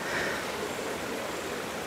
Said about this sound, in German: Wir sitzen hier am Bachufer im Wald oberhalb von St. Gallen.